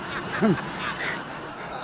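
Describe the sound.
A person makes a single short, nasal clucking sound, imitating a chicken as if on a chicken farm, against a steady background hiss. The rest of the moment passes quietly without further calls.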